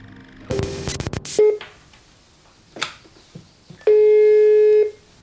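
Telephone dialing and line tones: a burst of rapid clicks and a brief beep, a few faint taps, then a steady electronic tone holding for about a second, without talk.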